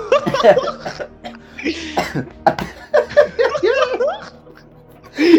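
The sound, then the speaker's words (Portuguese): A loud coughing fit: a rapid run of harsh, hacking coughs in irregular bursts, mixed with breathy, laugh-like gasps between them, ending on one more strong cough. “Pegou a tossir.”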